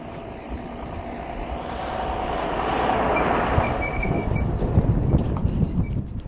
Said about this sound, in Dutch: Oh ja, hier komt echt een super grote tractor hopelijk. Ik ga even wachten met praten.